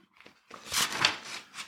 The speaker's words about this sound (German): Ich tue mal das Blatt umblättern.